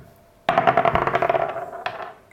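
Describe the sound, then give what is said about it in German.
Dice clatter across a hard tabletop, fairly loud, a burst of rapid tumbling clicks that slows down, then one final sharp clack as they settle. “würfeln stattdessen gleich los.”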